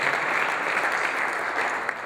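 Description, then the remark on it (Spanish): Steady fraternal audience applause at a Cántico Nuevo gathering, offered to those following online, a dense wash of many hands clapping at an even, sustained loudness with no voices over it. “Reciban este aplauso fraternal para ustedes.”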